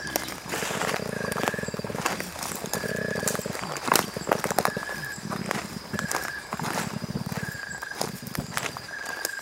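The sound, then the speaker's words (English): A male koala, high up in a tree, grunts and growls in a deep, rasping bellow, rising and falling in rhythmic pulses that carry on steadily. It sounds fairly close, with faint high-pitched calls in the background. “This grunting noise is from a male koala.”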